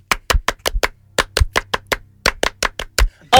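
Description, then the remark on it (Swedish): Sharp hand claps ring out in a quick rhythmic pattern, grouped in short bursts with brief pauses, loud and crisp with no voices, over a faint low hum: a big 'French applause' counted in with 'un, deux, trois' in a studio to welcome a guest. “Och en stor, stor, stor fransk applåd!”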